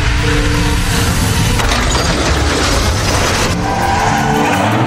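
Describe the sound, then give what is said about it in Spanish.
A car brakes hard at 60 km/h on a road with a 50 km/h limit, its tires screeching and skidding in one loud, continuous squeal with a rough roar underneath, sustained for several seconds without any voices. “Estas marcas indican que frenó con fuerza.”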